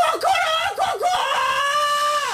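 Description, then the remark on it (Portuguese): A person imitates a rooster's crow with their voice: a few quick dipping yelps followed by a long, steady, high held note, loud, with no other sounds around it. “Começamos pela manhã com o som do cacarejar dos galos.”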